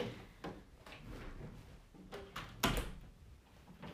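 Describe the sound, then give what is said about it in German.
A window is pulled shut: a few scraping, rattling movements build up to a solid thud of the frame closing, followed by a short rattle and quiet. No one speaks. “Kannst du mal kurz das Fenster zumachen?”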